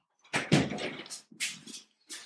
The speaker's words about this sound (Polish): Otwieranie drzwi.